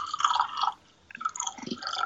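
More of a fortified drink is poured in two gurgling, splashy bursts with a brief pause between them. The sound is moderately loud, and nobody speaks.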